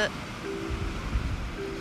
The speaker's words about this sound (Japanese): 今日はえっ、ー、と海岸まで来ています波の音が聞こえますでしょうか